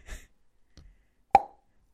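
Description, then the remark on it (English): A fizzy drink bottle being opened in a toilet room: a short soft hiss, a faint clunk, then one sharp hollow pop that rings briefly before fading, with no one talking. “Why don't you just open a bottle of fizzy drink and spray it everywhere?”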